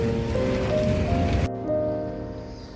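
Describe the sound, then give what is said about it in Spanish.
Steady, dense hiss of rain pattering, which drops away abruptly about halfway through, leaving a softer, duller wash of background noise. “Me estoy mojando porque está lloviendo.”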